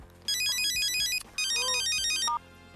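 signal or alarm, telephone ringtone

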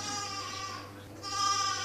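animal, sheep bleating

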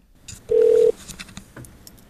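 signal or alarm, telephone call ringing

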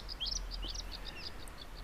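bird, bluethroat song

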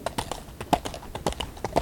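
animal, horse hooves galloping away

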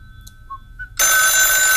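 household object, telephone ringing

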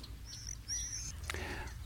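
bird, icterine warbler song

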